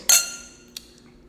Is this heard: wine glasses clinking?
yes